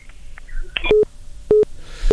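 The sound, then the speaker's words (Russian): A failed phone call to a live radio phone-in, caused by technical problems with the phone line: loud, clear telephone line beeps repeat at a steady pace, three short electronic tones with faint line hiss between them and no voices. “Да, какие-то технические неполадки сегодня с нашим Э, телефоном.”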